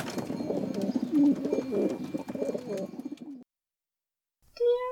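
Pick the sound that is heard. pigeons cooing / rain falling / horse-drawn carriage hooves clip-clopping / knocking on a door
pigeons cooing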